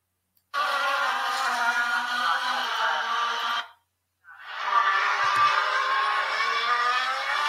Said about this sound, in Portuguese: carros de Fórmula 1 na curva 3 e 4, se não me engano.